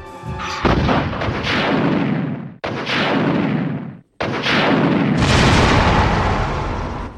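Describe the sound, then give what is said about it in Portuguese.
A loud whoosh of a rocket launcher firing a projectile at a giant creature on a heliport, followed by booming explosions, three heavy blasts in succession with rumbling, crackling tails and brief gaps between them, dominant with no voices. “Quando é atingido pelo foguete, uma breve explosão se sucede transformando a gigantesca criatura em pedaços que tão logo se espalham por todo o heliporto.”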